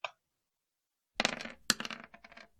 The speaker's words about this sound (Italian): Ok. Quindi io tiro con quattro dadi, mm-hmm.